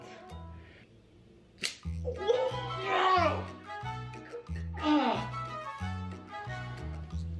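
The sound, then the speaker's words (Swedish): A single quick, sharp ripping sound of a wax strip being torn out of a nostril, followed by loud pained cries over steady background music. “Vaxet kommer ju stanna i min näsa. Ska vi dra?”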